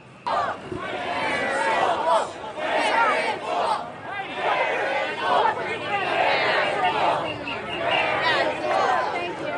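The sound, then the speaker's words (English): Several hundred people at a rally in Pennsylvania yell and chant "Where is Wolf?" about the governor, in a dense, continuous roar of many voices, rising and falling in rhythmic surges throughout, with no single voice standing out. “So that's uh, several hundred people yelling, Where is Wolf?”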